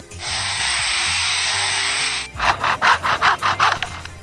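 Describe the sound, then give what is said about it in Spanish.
A lyrebird imitates the electric chainsaw of loggers: a steady, loud buzzing whine for about two seconds, then a quick series of about seven rhythmic rasping bursts, like a blade biting into wood. “pero también puede imitar más de una veintena de sonidos como por ejemplo el de una cámara fotográfica, la alarma de un coche, el sonido de una motosierra eléctrica de los leñadores que invaden su hábitat”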